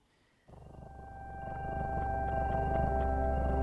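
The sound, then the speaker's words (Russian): Music made for cats begins after a brief silence: sustained, droning tones with high, whale-like glides and soft repeating pulses, gradually swelling louder, with no voices. “хочу сказать, что музыка для кошек – это, конечно, музыка для владельцев, причем сделанная по исключительно фашистским правилам.”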